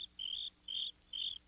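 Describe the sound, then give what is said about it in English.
Three crickets chirp in steady, high-pitched trills, three even pulses repeating at a regular rhythm over a faint, quiet background with no voices. “Soon there were three crickets chirping.”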